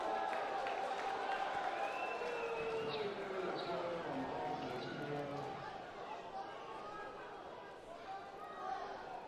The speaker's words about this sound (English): The crowd giving it to every BYU pitcher who's throwing to a base.